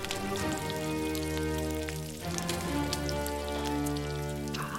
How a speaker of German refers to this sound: Ah, mei, wie das schön brutzelt da in der Pfanne. Aber das wird gut. Innen schön saftig und außen knusprig.